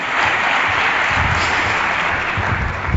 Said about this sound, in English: So let's give a large, a, a heavy round of applause for